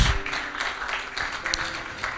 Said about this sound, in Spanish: ¿Cuántos dan un aplauso a Cristo? Gloria a Dios.